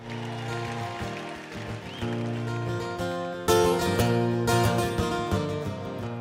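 An instrumental rock song intro plays loudly with sustained chords, then drums and crashing cymbals come in about halfway through, building energy. No singing or talking yet.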